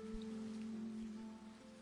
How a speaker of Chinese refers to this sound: 正巧，窗外传来淅淅沥沥的雨声，居然下雨了。